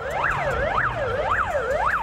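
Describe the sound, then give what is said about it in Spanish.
An emergency vehicle siren wails in quick, repeating rising and falling sweeps, steady and fairly loud, over a low rumble of traffic, in Transnistria, the separatist region of Moldova. “La región se ha llenado de personas desorientadas y sirenas.”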